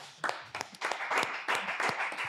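An audience applauds for the show's set designer, many hands clapping in a dense, crackling burst that stays fairly steady and moderately loud throughout, with no voices over it.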